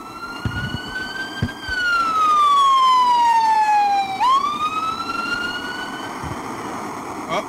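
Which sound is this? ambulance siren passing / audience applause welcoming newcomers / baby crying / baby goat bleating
ambulance siren passing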